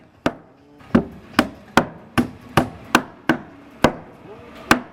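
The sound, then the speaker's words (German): Repeated sharp hammer blows at the construction site of a future home in the canton of Zurich, Switzerland, at the border with Thurgau: about ten strikes at a steady, fairly quick pace, ringing out loud over a faint background hum, with no one speaking. “Wir treffen uns auf der Baustelle von ihrem zukünftigen Dihei im Kanton Zürich an der Grenze zum Thurgau.”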